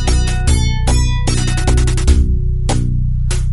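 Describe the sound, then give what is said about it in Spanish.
Audio from the arcade shooter game Blood Bros by Tag Corporation plays loud: sharp electronic blasts and buzzy synth tones burst in repeated hits over a steady, droning low bass, with no voices. “con otro que es un poco posterior, de un par de años más adelante, este que suena así.”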